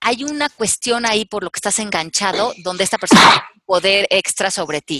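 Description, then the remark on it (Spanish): A single loud, sharp sneeze bursts out during a stretch of steady conversational speech. The talking pauses briefly around it, then resumes. “Salud.”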